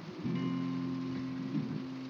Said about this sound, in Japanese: ちょっと雨がすごいんで、そろそろ終わりにしようかな。